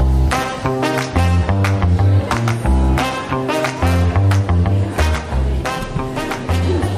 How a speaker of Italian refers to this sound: il jingle perché Aldo non l'ha sentito